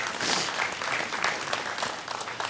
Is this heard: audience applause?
yes